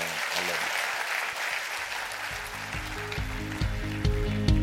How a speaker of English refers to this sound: Amen. Clap your hands. That's good stuff. Amen.